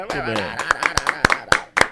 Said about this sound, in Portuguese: Você não consegue ouvir, mas a gente tá te aplaudindo. Mas a gente aqui aplaude.